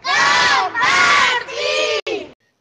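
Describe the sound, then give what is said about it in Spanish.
A group of beavers at a pond shouts a rousing battle cry in three or four loud, sustained, energetic bursts, ending abruptly. “Rápidamente, todos los castores dejaron lo que estaban haciendo y al grito de”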